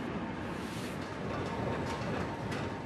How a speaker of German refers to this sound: Die Presse läuft jetzt auf vollen Touren.